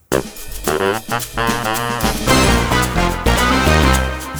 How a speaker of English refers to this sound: Um, and so, if we're going with option one, mm-hmm. the segment break would sound like this.